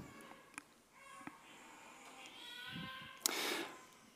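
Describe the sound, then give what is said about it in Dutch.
A baby cries faintly, a thin wavering wail that rises for a couple of seconds, with a brief sharper outburst near the end and no one talking. “Ik hoor een baby net huilen, dus ik denk van ja, het is tijd.”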